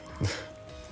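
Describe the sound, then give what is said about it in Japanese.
A single short, muffled yap from a neighbor's small dog, rising briefly above a quiet background with no one talking. “もうちょっと余談ですがあの隣のうちの犬ちょっとキャンキャン吠えててもしかしたら音入ってるかもしれないですね すいません”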